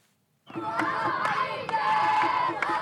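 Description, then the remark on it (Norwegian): Excited children cheer and shout together as they run toward soldiers arriving in jeeps in the city of Deir ez-Zor (Der al-Sor), eastern Syria, after three years of IS rule ended; a loud, continuous roar of high, overlapping voices rising and falling, with a few sharper shrieks breaking through. “Jublende barn løper mot soldatene som kommer kjørende i jeeper.”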